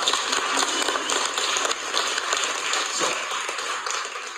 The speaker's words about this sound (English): Wow. Listen, you guys, can y'all give a round of applause?